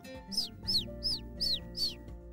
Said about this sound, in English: There was a thud right on my window. It's a bird. It's like she's trying to come in. Juliana opened the window and the bird flew right inside.